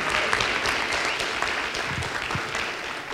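A crowd applauds steadily, a dense wash of many overlapping hand claps at an even, sustained loudness throughout, with no voices heard.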